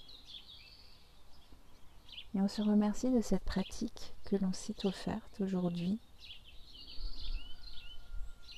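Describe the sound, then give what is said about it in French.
Birds sing and chirp steadily and softly in the background outdoors, while a woman speaks calmly in the middle; the birdsong is clearest before and after her words. “On Remercie l'univers et la terre, les oiseaux qui chantent pour nous.”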